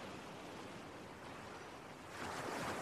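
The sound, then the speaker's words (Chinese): Sea waves wash steadily onto the shore at the Yantai seaside in a broad, continuous hiss, swelling louder near the end as a bigger wave breaks. No voices, just the rushing surf. “烟台海滨的天是辽阔无边的，烟台海滨的水是虚怀广博的，它们浩瀚的没有边际，一直延伸到无限的远处，天水连接的地方。”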